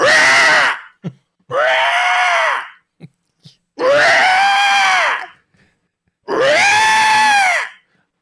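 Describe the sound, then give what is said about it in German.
A person loudly imitates the screech of a caged parrot beside a restaurant, screaming "Papa": four long, harsh, strained cries with rising-then-falling pitch, separated by short gaps and faint clicks and breaths. “Und am Anfang denkst du dir, oh cool, ein echter Papagei. Aber dann gehst du direkt daneben an in das Restaurant, um zu essen und plötzlich macht es”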